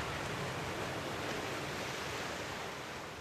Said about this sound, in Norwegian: Bølgene på Mjøsa ruller inn mot domkirkeodden ved Hamar. Lyden er den samme denne blygrå formiddagen med høstens første snødryss i lufta som i tidlig middelalder, når pilegrimene stanset her på vei til Nidaros.